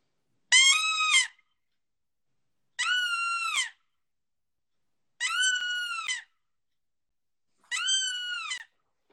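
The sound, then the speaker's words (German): A predator call lure imitates a bleating fawn: four high, nasal, wavering bleats, each just under a second long, repeated at steady intervals with silence between and no talking. “machst man Kids viel damit. Dann kommt der Fuchs auch.”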